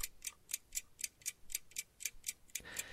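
A clock ticks steadily and briskly, about four crisp, even clicks per second, fairly quiet, with no voices over it.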